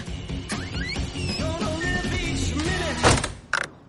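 A house door swings shut as someone enters the house, with a single solid thud near the end, followed by a brief rattle, over steady background music.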